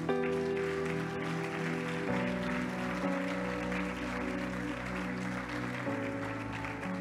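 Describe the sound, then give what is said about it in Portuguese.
A church audience applauds Jesus loudly after a prayer, a steady, dense wash of clapping lasting several seconds, layered over sustained music with chords that shift every few seconds. “Se você orou assim junto comigo, eu quero te convidar a aplaudir Jesus bem forte.”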